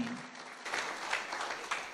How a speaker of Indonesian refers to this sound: Kita berikan tepuk tangan bagi Tuhan.